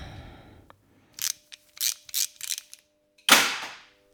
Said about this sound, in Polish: To był dźwięk e, grzechotki, e, która jakby ułatwia nam przykręcanie, odkręcanie śrub. E, to nie był jakby zwykły klucz, tylko po prostu no znacznie szybciej grzechotką odkręca się pewne śruby.